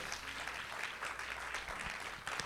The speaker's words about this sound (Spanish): Alguien puede darle un aplauso al Señor si usted lo cree.